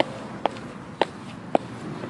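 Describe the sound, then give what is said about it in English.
Three evenly spaced footsteps thud up a set of steps to an apartment door at a slow, steady pace, over a faint background hiss with no talking. “up these steps”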